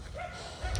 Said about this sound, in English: If you hear dogs barking, I'm walking down my street and it's just one of the, I'm like me walking is just disturbing the peace.